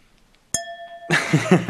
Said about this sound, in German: ja, wer Chin-Chin sagt, ja, der muss auch äh, anstoßen.